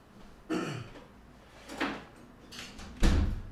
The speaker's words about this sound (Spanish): Voy a cerrar la puerta.